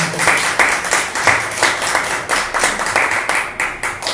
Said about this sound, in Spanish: Un fuerte aplauso, por favor.